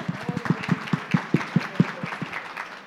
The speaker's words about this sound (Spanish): Muy bien, ahí quedaste bien. Aplauso.